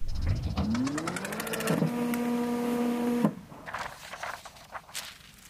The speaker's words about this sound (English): A single piece of paper prints out and falls to the ground.